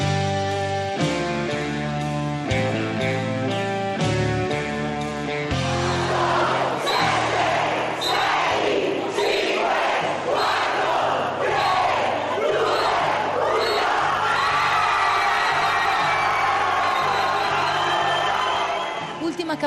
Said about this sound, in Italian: campanella oggi per gli studenti che hanno salutato con il consueto entusiasmo la fine dell'anno scolastico e che hanno visto chiudersi le porte dei loro istituti fino a settembre prossimo.